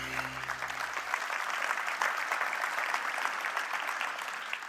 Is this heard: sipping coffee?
no